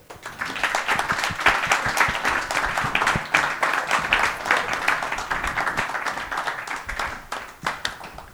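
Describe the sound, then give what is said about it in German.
Sustained applause from a large audience in Chemnitz welcoming hip-hop journalist Falk Schacht, dense overlapping hand claps forming a steady loud wash that holds for several seconds before tapering off at the end. “Ich bitte euch, macht einen riesengroßen Applaus für Falk Schacht.”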